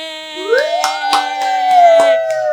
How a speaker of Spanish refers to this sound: Gracias por seguirme el aplauso, chicas.